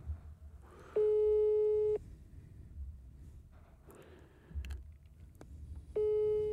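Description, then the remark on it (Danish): A telephone ringback tone sounds twice, each a steady one-second electronic burr separated by about four seconds of quiet, with a low background rumble underneath and no one answering. “Det er ikke sikkert, hun tager telefonen. Nej, den tog hun i hvert fald ikke.”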